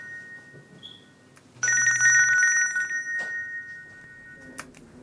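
A telephone rings once with a bright, sustained electronic tone lasting about a second and a half. The ring is clear, with no one speaking.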